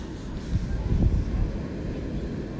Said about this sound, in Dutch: Ik ben benieuwd of je de zee ook hoort. Dat is zo'n kalmerend geluid. Die zee, die oerkracht van het water. Levenskracht.